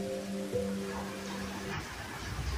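rain falling

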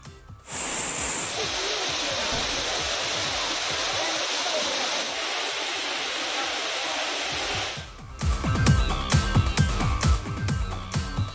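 waterfall rushing water

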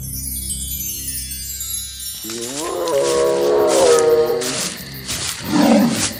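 lion roar

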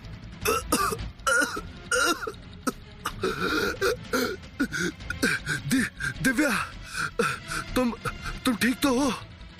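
two people coughing

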